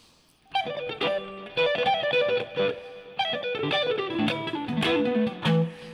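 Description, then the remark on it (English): Distorted electric guitar noodles through quick, fluid runs of notes, with hammer-ons and pull-offs linking the phrases, played fairly loud with no voices. “Now it's starting to sound like Guitar Center on a Saturday morning here.”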